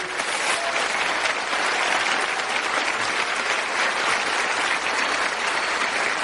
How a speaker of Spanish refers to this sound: Por favor, un fuerte aplauso para ellos.